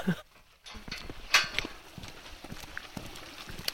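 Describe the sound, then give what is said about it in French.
The horse Dorian Gray de Hus, a tall brown horse of about 1.70 m, walks with hooves clip-clopping at a steady rhythm, with a light outdoor background and one sharper, louder strike partway through. “C'est un, grand cheval qui doit faire 1m70, marron un peu comme un écureuil.”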